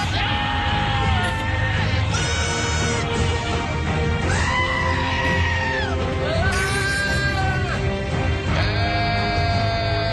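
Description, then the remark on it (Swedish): Goat bleats edited into the sweeping orchestral Game of Thrones intro theme, turning it into "Game of Goats", with repeated wavering, quavering cries taking the place of the melody over a constant booming accompaniment. “Den här mäktiga introt till Game of Thrones som då blir Game of Goats.”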